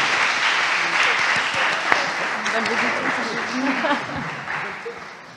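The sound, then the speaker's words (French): Steady audience applause for the speakers at the close of a conference event, a dense wash of many hands clapping at an even loudness for several seconds, with faint voices murmuring underneath and a slight fade toward the end. “donc on se retrouve à, à, 13h30 pour le prochain événement, mais je pense qu'on peut quand même applaudir nos intervenants pour la pertinence.”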